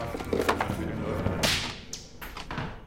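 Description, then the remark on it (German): A sharp, loud crash of a camera, angrily torn from a PC and hurled against a wall, rings out midway: a sudden bright impact followed by a brief clatter and a couple of smaller knocks over a low background rumble. “Wütend reißt er die Kamera vom PC und schleudert sie gegen die Wand.”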